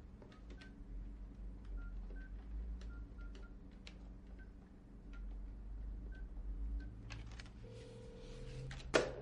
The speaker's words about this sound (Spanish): Deja el papelillo en el escritorio y descuelga el auricular. Marca un número en el teléfono.